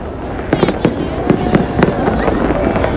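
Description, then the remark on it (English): A rapid series of sharp fireworks bangs crackles outdoors, irregular pops bunching together over a steady background hiss, with no one speaking. “oh here we go, more fireworks.”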